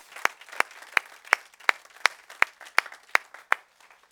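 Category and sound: crowd, audience applause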